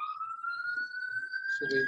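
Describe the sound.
An ambulance siren wails steadily from a distance, a single long tone slowly climbing in pitch, with a voice starting to talk near the end.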